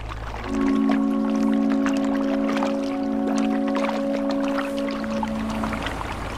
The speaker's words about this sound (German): das beschauliche Plätschern der Meuse, einige der Geräusche, die uns auf dieser ersten Etappe der Reise